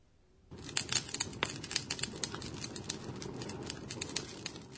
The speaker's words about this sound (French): On dirait que des gens font un feu de camp. En japonais, on exprime le son de quelque chose qui brûle de la façon suivante. pachi pachi, pachi pachi.